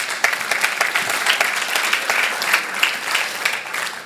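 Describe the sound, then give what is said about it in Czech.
An audience applauds steadily for about four seconds, a dense, even patter of many hands clapping at a fairly loud level, with no voices standing out, after being invited to clap in thanks to the Lord. “Děka pánovi, můžete zateskat.”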